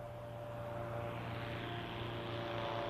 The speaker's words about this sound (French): Dès qu'il a un peu de temps libre, il se rend à l'aéroclub de Brive pour y faire une balade en avion. Avant de partir, il vérifie le bon fonctionnement de son appareil, met son casque, puis ferme son cockpit. Et le voilà parti.